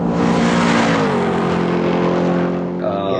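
A loud car engine revs hard, its pitch climbing steadily in a sustained roar that fills the whole short stretch before easing slightly at the end.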